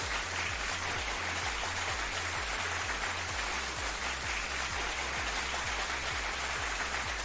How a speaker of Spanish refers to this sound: Un aplauso para los del coro. Y ya terminan los aplausos, ¿no? Otro aplauso para los lectores, otro aplauso.